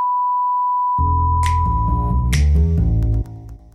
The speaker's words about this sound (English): If you just hear a massive beep for the next twenty seconds, you know that this story is not legally allowed to be broadcast.